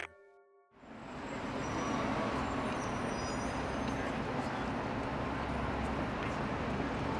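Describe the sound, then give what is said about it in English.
A dense, steady roar of city street traffic on 6th Avenue, engines and tires blending into a continuous wash of noise that holds at a constant level after a brief quiet start. “But when I hear uh, traffic, the sound of traffic here on 6th Avenue, for instance,”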